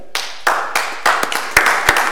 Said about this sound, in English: I would like every resident that's in this room right now to stand up and applaud that gentleman who's going to be honored today.